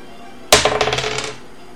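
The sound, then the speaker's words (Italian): Dice rolled for a mechanics and technology check in a tabletop role-playing game hit a table with a sharp clack, then rattle and bounce in a quick run of clicks that fade out within a second, landing on 3. The sound is on its own. “Fammi un tiro su meccanica, tecnologia.”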